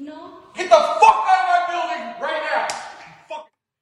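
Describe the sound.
A sharp, loud slap across the face lands near the start, a single smacking hit, followed by agitated voices talking and exclaiming over the rest of the moment.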